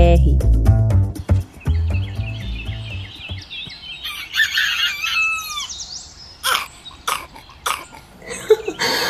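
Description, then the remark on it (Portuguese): A person imitates a rooster crowing, with strained, rising vocal calls and rough throaty bursts strung together over several seconds, ending in sharp, choppy sounds. “por que você está tentando imitar um galo?”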